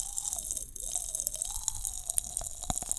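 Pop Rocks candy crackling inside a mouth, a wet fizz of tiny irregular pops and snaps, with a few sharper cracks standing out near the end. No one speaks.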